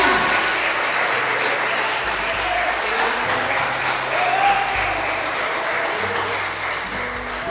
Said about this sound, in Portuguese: Aplauda Jesus com alegria.